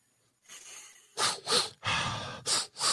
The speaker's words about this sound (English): We're gonna do some breathing exercises, breathe in